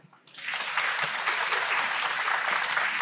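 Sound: audience clapping to vote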